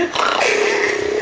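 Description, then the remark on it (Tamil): A person voices a drawn-out, rough growl, imitating a tiger roaring in a story. It is loud, one continuous snarl lasting just over a second, its pitch sliding downward, with no other speech. “உடனே இந்த புலி என்ன பண்ணிச்சு நேராக ஓடி வந்து குகைக்கு வெளியே நின்று அப்படின்னு நல்லா ஊர் உரு உருன்னு சத்தம் போட ஆரம்பிச்சது புலி எப்படி உருமிச்சு”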